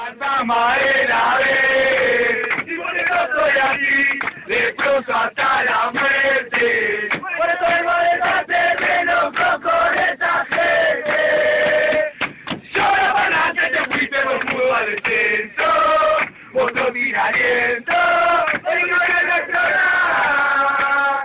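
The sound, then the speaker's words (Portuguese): A loud crowd of Argentine football supporters sings a version of a song together in unison, a sustained melodic chant with rhythmic breaks between phrases that carries on steadily for the whole stretch. “São várias versões cantadas pelas inchadas argentinas.”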